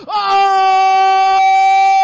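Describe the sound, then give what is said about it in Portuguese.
A man lets out one long, loud celebratory scream for Operário winning the 2022 state championship title, his voice held at a steady high pitch for about two seconds, powerful, with no other talk. “Encher minha garganta! E gritar! E gritar! E gritar!”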